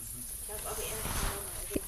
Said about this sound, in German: Oh es ist eine Ratte.